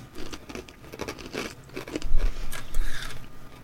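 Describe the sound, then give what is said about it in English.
Crisp crunching of a garlic-flavoured snack like very large flat croutons being bitten and chewed, with irregular bursts of brittle cracks and mouth noise, no talking. “…'s going for the munch and the crunch.”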